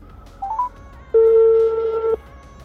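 A short rising electronic chirp is followed by a sustained, steady telephone ring tone lasting about a second, loud, heard through the phone line before a call is picked up.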